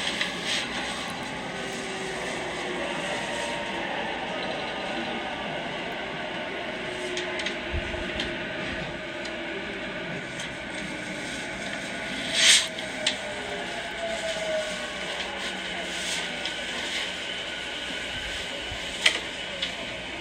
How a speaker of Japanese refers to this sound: ま電車に乗っているところでございます。はい。はい。電車に乗っている時の音ですね。まあ、普通の音でございます。